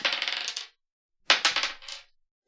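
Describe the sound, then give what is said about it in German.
Dice clatter and tumble across a hard table in two quick, rattling bursts separated by a short pause, fairly loud, with no voices; the dice are rolled for a final dance move. “Ich hätte da gerne einen Würfelwurf von Zacke für ihren finalen Dance-Move.”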